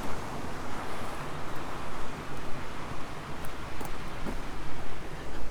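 Water rushes steadily over the weir on the River Lim at Lyme Regis in a constant, dense roar, fairly loud, with a little wind buffeting the microphone and no voices.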